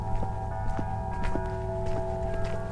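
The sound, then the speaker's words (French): Steady footsteps crunch on hard, frozen ground at an even walking pace during a morning walk out of a village at minus 20 degrees, each step a short sharp impact over a constant low hum in the background. “Ce matin, je quitte le village pour une petite promenade. La terre est gelée, dure comme le marbre.”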